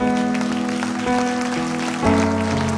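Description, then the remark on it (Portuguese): A church audience claps for the Lord as a young girl raises her hand during an altar call, a steady, dense patter of many hands mixed with sustained keyboard chords that shift twice, with no voices heard. “Temos uma jovenzinha ali, vamos aplaudir ao Senhor.”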